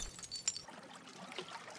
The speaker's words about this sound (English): He could hear the squealing of brakes, the crunch of metal, of glass and bone.